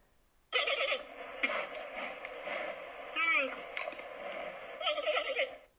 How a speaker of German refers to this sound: Ein Esel. Oh, das ist Ich sag Pinguin. Es ist ein Panda-Bär. Jö. Oh, ja, wirklich... das ist wirklich süß.